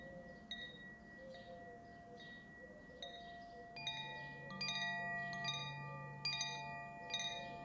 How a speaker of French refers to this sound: Lorsqu'une pensée se fait trop présente, à tout moment, vous pouvez faire le choix de ramener votre attention sur le son du chime, sur votre respiration, ou alors sur vos ressentis corporels.